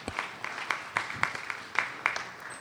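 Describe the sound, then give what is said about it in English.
An audience applauds to welcome a speaker to the front for a talk on human trafficking. It is a steady wash of clapping with a few sharper individual claps popping out at an uneven beat. The applause stays moderate throughout, with no talking over it. “So, go ahead and clap for her, make her feel comfortable up front.”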